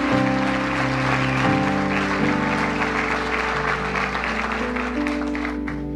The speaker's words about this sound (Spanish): Dele un aplauso al Señor. Él viene por su iglesia. Aleluya. Dele un aplauso allá en casa también.